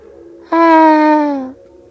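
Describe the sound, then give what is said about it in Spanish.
A single sustained, mournful wail like a moan or lament, heard on the road leading to Rolobus, lasting about a second, holding a steady mid-pitched tone with a rich, buzzy quality before sliding slightly downward and cutting off over quiet background hum. “Cuando estaba a punto de entrar a su casa, un sonido parecido a un quejido o lamento le llamó la atención.”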